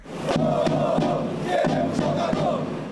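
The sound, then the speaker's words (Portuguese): A large crowd of São Paulo football fans at the Morumbi chants in protest after a 5–1 defeat, calling for changes in the team's leadership: a dense, sustained roar of many voices with rhythmic shouted accents and a few sharp claps or bangs cutting through. “A torcida protestou e pediu mudanças no comando da equipe.”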